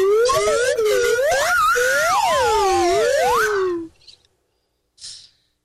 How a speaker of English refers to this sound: And all he's really requesting is a little slide whistle.